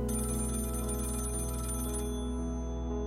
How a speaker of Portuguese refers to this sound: dia 8 de abril, 8 da manhã, o toque do telemóvel veio confirmar o inevitável.